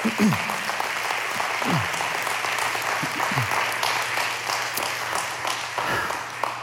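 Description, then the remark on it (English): A crowd applauds steadily for several seconds, a dense wash of many hands clapping at once, with a few voices calling out underneath. “See, Gary, you can clap by that.”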